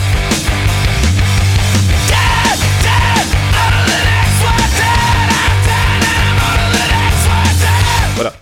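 Loud, dense rock music with a heavy distorted guitar riff, pounding drums and a vocalist screaming over it, playing at full volume before cutting off abruptly at the end.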